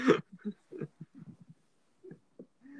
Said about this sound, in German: Auch dein Hund möchte in den Podcast. Perfekt. Ich lass ihn mal rein.